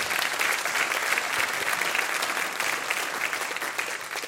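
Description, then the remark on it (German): Steady audience applause at a question-and-answer event, a dense patter of many hands clapping at a constant, fairly loud level with no voices on top. “Sie dürfen gerne klatschen.”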